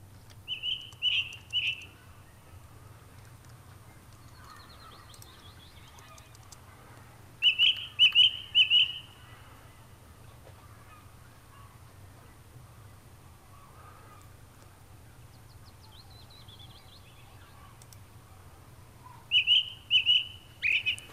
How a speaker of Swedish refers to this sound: Hörrni, jag tänkte vi kunde faktiskt lyssna lite på ringtrasten och se om den skiljer sig lite från, från andra trastar. Här, så här låter den.